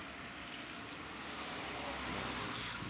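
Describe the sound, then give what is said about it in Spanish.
A steady wash of traffic noise from a busy street, with cars rushing past in a continuous roar that swells slightly toward the end. No one speaks. “Ahora están pasando un montón de coches, más que desde ayer.”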